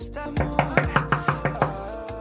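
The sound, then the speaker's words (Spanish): About seven quick, evenly spaced knocks on a door, firm and sharp, rapping in a steady rhythm over a soft, sustained musical background. No voices. “De todas maneras, voy a golpearle en la puerta a ver qué me dice.”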